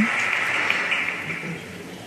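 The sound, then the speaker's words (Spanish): Steady, dense applause from a large crowd, an ovation for the pregonero (the proclamation speaker), a continuous wash of clapping at an even loudness throughout with no voices standing out. “Siendo presencia ya, décima ovación para el pregonero.”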